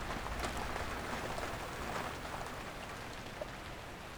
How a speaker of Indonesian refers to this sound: Tapi bukan berarti gue benci hujan. Gue seneng ngeliat dedaunan basah, jalanan becek, dan suara air ngebentur atap.